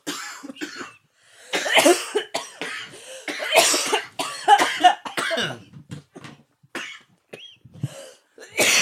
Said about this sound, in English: Don't don't try to talk while you're coughing. You could just let yourself cough. Okay. Coughing is okay.